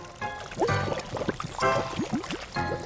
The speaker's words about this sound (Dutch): Maar pas op voor het kokend water, hè.